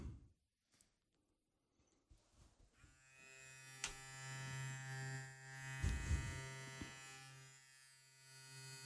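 An electric razor switches on and buzzes steadily with a bright, harmonic-rich hum as someone shaves, with a few scraping bursts as it moves; no one speaks.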